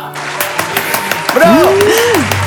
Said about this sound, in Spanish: Actualmente está laborando en Hospital General Pachuca y les pido por favor que la reciban con un fuerte, fuerte aplauso.